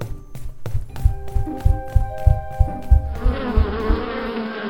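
Bees buzz steadily with a droning hum as they fly away, joined by rhythmic low thumps; after about three seconds the buzzing swells into a denser, brighter swarm sound.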